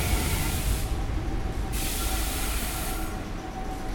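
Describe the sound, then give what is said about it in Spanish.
A train passes on the track at the opposite platform of a station, about 20 to 30 metres away, reaching about 80 decibels over a background level of 67 decibels: a loud, continuous roar of wheels and rail noise with a steady low-frequency rumble and hissing overtones, no voices. “Mientras el fondo se mantiene en 67 y ahí viene el del otro andén. y llegan 80 decibeles.”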